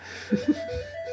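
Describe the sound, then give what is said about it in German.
A phone rings with a short melodic ringtone, sustained electronic tones with two brief low pulses near the start, moderately loud and heard on its own without any talking. “Aber ich, wie gesagt, ich möchte gerade nicht ans Telefon gehen, sonst bin ich hier wieder raus aus dem Podcast.”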